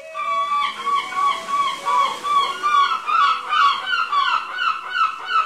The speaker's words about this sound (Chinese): 哇，海鸥唱的真是很好听啊！